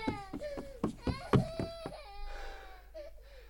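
A girl sobs in short, broken bursts, several catching gasps in a row, then trails off into a higher, wavering whimper that fades quietly at the end.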